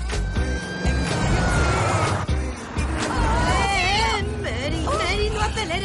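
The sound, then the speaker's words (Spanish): A car engine rumbles steadily as the vehicle drives along a road in Hampton, Virginia, in 1961, following a police patrol car, with excited overlapping voices and other busy noises layered on top throughout. “Mary se pone al volante. Siguen al coche patrulla.”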